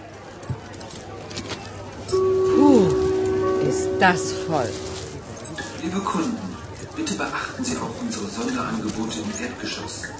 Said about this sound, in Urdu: ایک بڑے shopping centre میں جا رہے ہیں وہاں بہت سے لوگ موجود ہیں جو کہ خصوصی پیشکشوں زونڈر بوٹن کی تلاش میں ہیں آئیے ذرا سنتے ہیں کہ اتنی بھیڑ اور اتنا ہجوم کیا منظر پیش کر رہا ہے